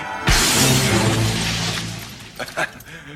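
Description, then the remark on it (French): A large glass French window shatters in one sudden, loud crash, followed by a long, ringing spill of breaking shards and two smaller clinks of falling pieces near the end. “Je vous avertis, je déduirai le coût de cette porte-fenêtre du salaire minable que vous volez à l'administration.”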